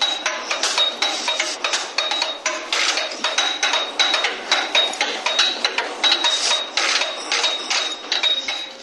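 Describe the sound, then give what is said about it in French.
Dense, rhythmic metallic percussion played by a musician striking the Eiffel Tower's metal girders with drum gear, a rapid stream of bright clanging hits with ringing tones, loud, with no voices. “il joue de la Tour Eiffel en fait”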